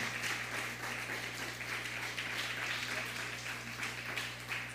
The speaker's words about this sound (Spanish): Damos un fuerte aplauso a Nicaragua.